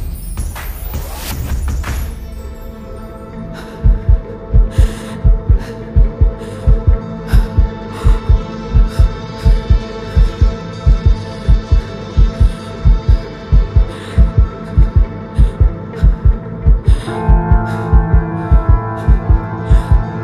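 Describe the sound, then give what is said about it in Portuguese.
A strong, fast heartbeat thumps steadily in the foreground, its rapid double beats pulsing over a low droning hum with no voices present. “batimentos cardíacos mais fortes e acelerados”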